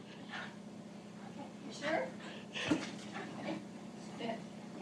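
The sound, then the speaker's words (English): A dog whimpers and pants in short, excited bursts, with a steady low hum underneath and soft vocal sounds scattered through. “Now it's going to take the dog for a while.”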